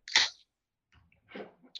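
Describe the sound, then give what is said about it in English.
A beer can cracks open with a sharp, hissing pop, then soft fizzing and faint rustles follow before a second brief burst of hiss. “Uh, I think that was me cracking a beer.”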